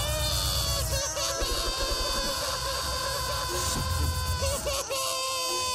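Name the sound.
people screaming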